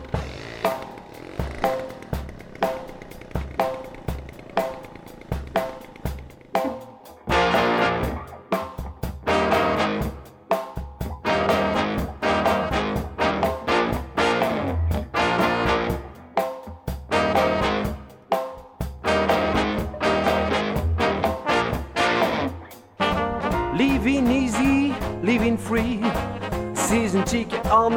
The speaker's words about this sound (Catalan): Doncs aquí la tenim en la versió dels deconstructors del pop en format swing francesos.